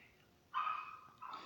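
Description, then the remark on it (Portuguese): Dogs bark, two sustained bursts about a second apart with a slightly whiny, yelping edge, fairly faint against otherwise quiet surroundings. “Eu falei sobre cachorro latindo. Tá, espero que não incomodem vocês.”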